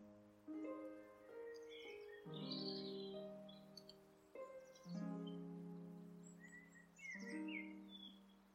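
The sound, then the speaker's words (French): Birds chirp and sing in scattered bright phrases over a steady background of sustained swelling tones that rise in four waves. “Et maintenant, Entends-tu chanter les oiseaux”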